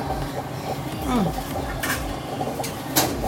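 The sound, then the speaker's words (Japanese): Plastic handling as a rubber gasket (packing) is pressed into a bento lunch box lid, with soft rubbing and two sharper clicks near the end over a quiet background. “パッキンパッキンがあるから弁当箱の蓋なんだけどパッキンがあるからここにこうやってさ入れてくれるこれ意外と重要な役どころだから”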